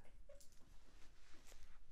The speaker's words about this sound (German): Wir wurden kurz unterbrochen. Mit, kurz, äh, kurzer Übergriff vom Hund. Können wir den nicht mal ins Exil schicken, während wir hier aufnehmen?